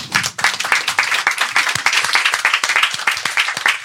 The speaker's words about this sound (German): Ja, super, guck mal. Ein Applaus für meinen Ehemann.